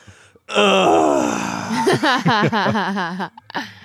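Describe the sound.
A voice imitates a long exasperated groaning sigh, starting as a drawn-out strained moan and breaking into a series of wavering, pulsing groans before trailing off, loud with no words.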